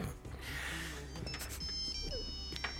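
A Nokia mobile phone ringtone plays a string of high, thin electronic tones over a steady low background hum. The ringing starts partway through and keeps going to the end.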